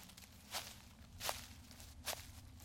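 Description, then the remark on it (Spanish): Three soft footsteps of someone approaching fall at a slow, steady pace over a low background hum, fairly faint and with no one speaking. “Alguien viene tal y como si se hubiera repetido lo que vivimos hace unos días, volvimos a escuchar.”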